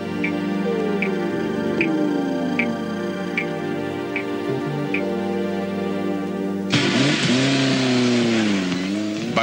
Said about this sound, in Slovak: to si mohol nehať, ako tam sú nejaké zvuky automobilových súťaží